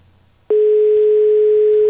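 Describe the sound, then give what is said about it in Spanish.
After a short moment of low background noise, a loud, steady telephone ringback tone on an outgoing phone call starts abruptly and holds unbroken to the end, a single sustained electronic hum with no voices. “¿Cuántos tonos vas a dejar”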